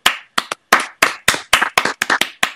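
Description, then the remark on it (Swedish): A short burst of hand clapping, a dozen or so sharp claps in a slightly uneven rhythm, like one or two people applauding briefly for the first topic sent in by a listener, with no talking. “Det tycker jag är värt en applåd.”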